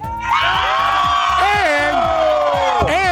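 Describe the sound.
A loud, dense outdoor crowd of Chiefs fans roars and cheers continuously at an NFL playoff game between the Chiefs and the Dolphins, with individual whoops and yells rising and falling above the sustained wall of voices.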